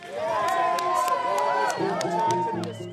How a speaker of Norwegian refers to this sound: I februar i år jubler tilhengere utenfor ambassaden i London, der Assange trer ut på balkongen og vifter med et FN-dokument som fastslår at han er utsatt for vilkårlig frihetsberøvelse.